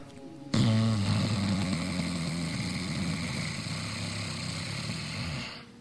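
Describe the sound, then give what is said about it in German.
A long, steady snoring-like inhalation made deliberately in the throat during a breathing exercise, a rough rattling drone starting abruptly and holding for about five seconds before tapering off, with no talking over it. “Atmet schnarchend ein.”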